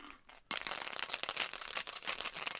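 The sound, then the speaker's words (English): A hundred-sided die is rolled to choose a number, rattling across a hard surface in a continuous clatter of rapid little clicks lasting a couple of seconds after a brief quiet start. “All right, so science fiction, and then, and then, and then we do a hundred-sided dice to to choose the number.”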